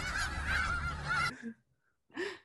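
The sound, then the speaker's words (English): Loud, raucous goose honking from a played meme clip fills the first second and a half as a dense, harsh burst, then a short pause before one more honk rings out. “I was gonna do that girl who like sees all those birds and is like, look at all these chickens.”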